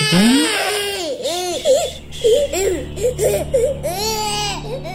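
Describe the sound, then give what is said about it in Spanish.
A baby wails loudly, a long rising cry breaking into a rapid series of short, wavering sobs before swelling into another drawn-out wail. “No llores, angelito.”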